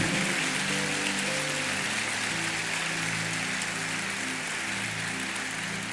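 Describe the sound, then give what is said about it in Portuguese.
A crowd at a church service applauding steadily, dense overlapping clapping that blurs into a rain-like hiss and holds at an even level, with low sustained musical tones humming underneath. “Você pode aplaudir por um minuto.”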